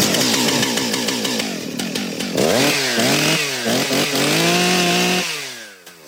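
A chainsaw roars continuously, its engine pitch rising and falling as it revs and bites into wood, loud for several seconds before easing off at the end.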